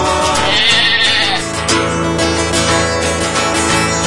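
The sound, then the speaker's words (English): Sheep bleat loudly, wavering, nasal calls that run almost continuously for several seconds with a brief break partway through. No one speaks. “Ah, the bleat and the meat of sheep to practice our manlyhood.”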